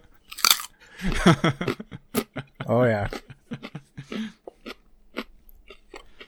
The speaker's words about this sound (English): Those carrots are going to sound great on mic. Give us a crunch.